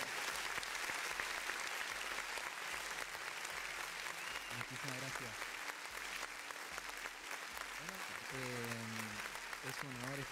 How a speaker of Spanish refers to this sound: Fuerte el aplauso por favor a estos dos jóvenes.